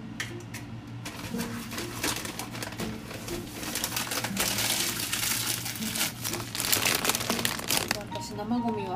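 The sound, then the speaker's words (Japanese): Continuous crinkly rustling of newspaper being crumpled to wrap kitchen waste for throwing away, dense crackles and rasps, with a low hum and indistinct voices underneath; the paper is a small free newspaper cut in half. “新聞紙にくるんで捨てる派です新聞紙もねあのあれ普通の新聞じゃなくてあの小さめのなんか勝手に届くやつそれを切って半分に切ってそれを台所のところに置いてですけど”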